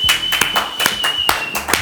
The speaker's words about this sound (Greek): Χειροκροτώ τον εαυτό μου, κάνω like σε μένα, comment και like στο comment.